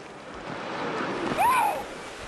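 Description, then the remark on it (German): Steady, dense rushing of river rapids that veterans ride through on plastic boards fills the whole stretch, a broad unbroken roar, with a brief swooping whistle-like cry rising and falling about halfway through. “Heute gleiten sie auf Plastikboards durch die reißenden Fluten.”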